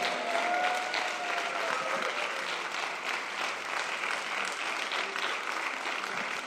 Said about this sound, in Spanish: Vamos a darle un aplauso de, fe al Señor.